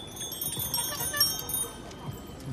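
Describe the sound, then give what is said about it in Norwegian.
Many bicycle bells ring from Foodora bike couriers striking last autumn for a collective agreement, an overlapping, continuous jangle of bright metallic chimes, with a murmur of crowd voices and low rumble underneath. “Da syklistene i budfirmaet Foodora streiket for å få nettopp en slik tariffavtale.”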